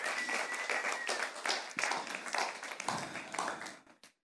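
An audience applauds, many hands clapping in a dense, steady crackle that holds for about four seconds before abruptly tapering off.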